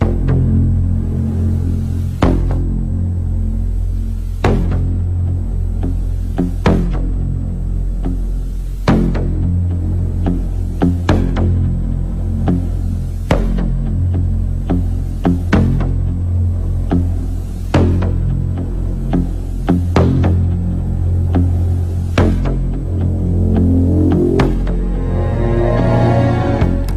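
Minimalist, throbbing film score music from John Carpenter's film The Thing: a dark, sustained low drone with a steady heartbeat-like pulse about every two seconds, loud and continuous throughout, with no voices.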